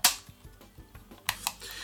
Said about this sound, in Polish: Na dole mamy głośnik, cztery nóżki i na koło y, tych nóżek mm, mamy mm, taki przycisk mały, przycisk ustawiania i klapkę od baterii. Urządzenie jest, o, która się tak otwiera i tak zamyka.